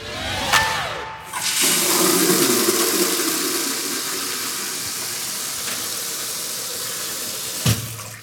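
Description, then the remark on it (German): Tap water gushes steadily into a bucket for exactly six seconds to measure how much water flows, a loud, continuous rushing splash with a faint clunk near the end. No one speaks. “So, jetzt haben wir genau sechs Sekunden lang gemessen und dann messen wir die Menge an Wasser, die hier im Eimer gelandet ist, mit dem Messbecher genau ab.”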